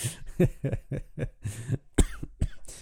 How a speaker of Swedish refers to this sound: Jag tyckte det var så härligt att du lutade dig ganska långt bort från micken men det hördes som att du rapade rakt in i micken.